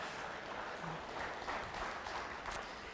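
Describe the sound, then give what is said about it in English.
A single person claps faintly and unevenly, a few sharp hand slaps standing out against a steady, hissy background with no talking, as the speaker claps alone for the single people in the room who raised their hands. “how many of you in the room this morning are single raise your hand raise your hand high be proud of it all right you I'm the only one clapping for you, but that's great, okay?”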